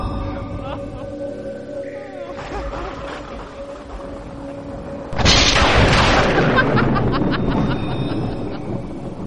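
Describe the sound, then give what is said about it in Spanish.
Thunder from a worsening storm rumbles low and steady, then swells abruptly into a loud roar halfway through before slowly fading back to a heavy rumble. “la tormenta ha empeorado.”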